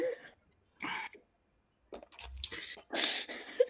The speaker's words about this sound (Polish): Ja tam chrząkam.